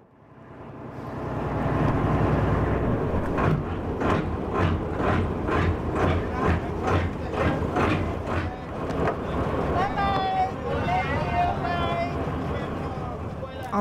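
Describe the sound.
A boat's engine drones steadily as it crosses the ocean toward Kuku, with a run of regular thudding beats through the middle and indistinct voices rising over the rumble toward the end.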